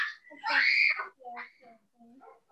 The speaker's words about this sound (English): They're really piercing. i like, you know what? You are what is causing me sensorineural hearing loss right now with your screaming.